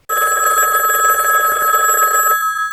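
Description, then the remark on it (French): A telephone rings loudly and steadily with a bright, trilling electronic tone before an answering machine message, filling nearly three seconds before cutting off abruptly near the end, with no voices present. “On va s'écouter quelques répondeurs.”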